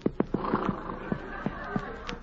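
A horse, Reginald the Wonder Horse, whinnies as it is reined in at the Bar Cheerio Ranch in Arizona on a hot day: a drawn-out, wavering neigh over a series of sharp, irregular knocks like hooves clopping on hard ground.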